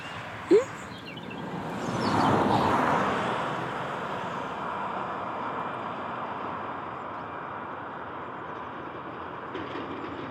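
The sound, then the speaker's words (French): A car passes by, its whoosh swelling to a peak and easing off, leaving a steady broad rumble behind; a brief sharp click sounds just before it arrives. “Non, c'est ah, une voiture.”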